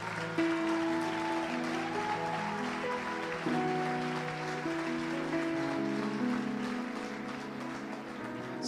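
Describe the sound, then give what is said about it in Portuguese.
A church audience applauds the Lord steadily for several seconds during an evening service, a dense, even patter of clapping that carries over sustained keyboard chords playing underneath without any break. “Pode aplaudir o Senhor mesmo, isso, isso, isso.”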